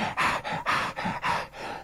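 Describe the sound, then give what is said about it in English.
A voice performs a quick run of short, breathy little gasps of pleasure, four or five in steady rhythm, fairly loud, with no words spoken. “He paused for a full five minutes, eyes closed breathing altered to little nasty gasp of pleasure as he, as he,”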